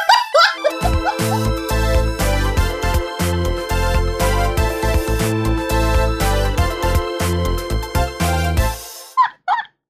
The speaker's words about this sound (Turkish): Köpek.